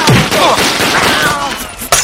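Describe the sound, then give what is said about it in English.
A loud, continuous barrage of gunfire, shots crackling together in a dense, noisy volley for two seconds, with one sharp, distinct bang near the end. “The stench of gun smoke is making my eyes water”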